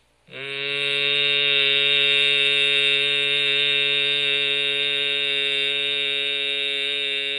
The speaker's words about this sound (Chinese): 颅腔共振是用嗯这个音，嘴巴闭起来，轻松的往上扬啊。如果你可以扬到你的颅这个，把这个头盖骨都可以稍微震动，你又感觉到热气往上流的话，那也非常好哈。